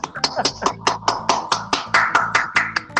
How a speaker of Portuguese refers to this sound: Ah, uma salva de palmas!